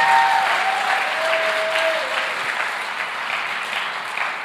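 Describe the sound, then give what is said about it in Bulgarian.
An audience breaks into sustained, dense applause, many hands clapping steadily at full strength throughout, with a faint tonal whistle or feedback line briefly audible early on. “О, ако вярваш това, дай на Бога едно дарение на ръкопляскане, като че наистина го вярваш.”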